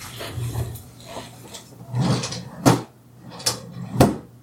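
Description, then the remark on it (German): A filing cabinet drawer rumbles and scrapes along its runners as research papers are put back into the archive, then slams with a sharp metallic bang; a second slide and thud follow moments later, over a low steady hum. “Ich höre die Schublade nicht.”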